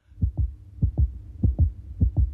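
A mother's heartbeat, as heard by a baby inside the womb, thumps muffled and low in a steady lub-dub rhythm, four double beats in quick succession, fairly loud with no voices.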